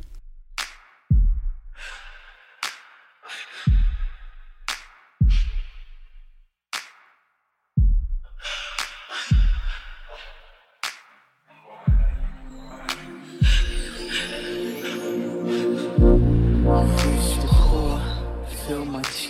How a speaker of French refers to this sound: Il fait une sorte de pop de dubstep.